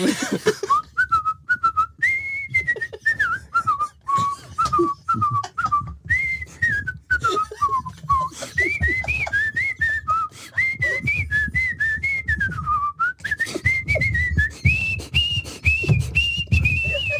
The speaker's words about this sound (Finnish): Otetaan yksi toive uusinta. Titti, titti, titti, kuka haluaa viheltää vielä kerran?